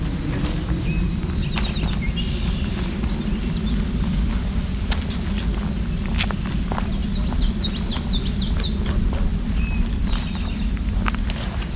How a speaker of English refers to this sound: eastern towhee. It's also a swamp sparrow, the more ringing sound in the background. Drink tea, part of the drink your tea, right there, eastern towhee.